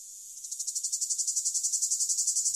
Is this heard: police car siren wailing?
no